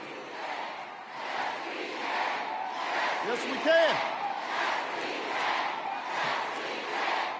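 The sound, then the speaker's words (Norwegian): A large crowd at a campaign rally in Virginia for a governor's race chants Barack Obama's well-known old slogan in unison as he comes on stage, voices rising in steady rhythmic waves about every second and a half, loud and echoing, with a brief whistle cutting through midway. “Mens publikum ropte hans kjente, gamle slagord”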